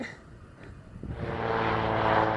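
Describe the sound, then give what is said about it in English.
A small propeller plane flying to a glacier at Denali drones overhead, its engine hum swelling from faint to loud within a couple of seconds and holding a steady, buzzing tone. “she boarded a plane and flew straight to the glacier to meet him.”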